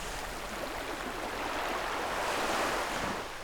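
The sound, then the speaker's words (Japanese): Soft ocean waves on Iriomote Island wash steadily onto a beach in a continuous, gentle hiss of surf, even in volume, with no voices present. “そうなんかこう優しいまろやかな音っていうか、はい、サラサラしている砂がそこにあるような、うん、今聞いていただいているのは西表島の波の音です”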